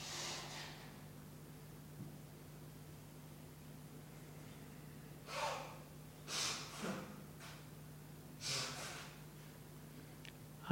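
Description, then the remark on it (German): Several sharp, breathy bursts of air, forceful breaths pushed in and out through the nose during a round of Bastrika breathing exercise, using the belly or belly and chest, come in an uneven cluster over a quiet background with a steady low hum. “eine Runde Bastrika, wo ihr fester ein- und ausatmen, entweder nur mit dem Bauch fester atmen oder mit Bauch und Brust.”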